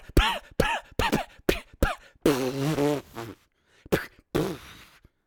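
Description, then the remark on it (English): A voice imitates a clunky old 1940s cartoon car with a run of quick sputtering, chugging mouth noises, a longer rattling drone in the middle, then a few final sputters, fairly loud. “It, it's like it's like you know the old uh, cartoon clunking car sound in um, from like the 1940s.”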